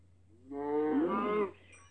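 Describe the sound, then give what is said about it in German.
A single drawn-out, pained cow moo from a video game as the player kills the cow, about a second long, rising then fading, clear with no voices over it. “Oh, oh, ah. Ich hab sie getötet. Habe ich jetzt alles gesammelt von dieser Kuh?”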